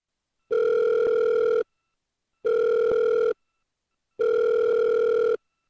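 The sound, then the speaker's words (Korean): A telephone ringback tone sounds three times, each steady buzzing tone lasting about a second with short silent gaps between, clear with no talking, as a phone call is placed to connect with a family. “네, 이 가족을 전화로 한번 연결해서 직접 이야기를 좀 들어보면 좋겠습니다.”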